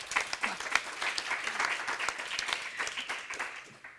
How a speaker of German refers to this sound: Ein Applaus.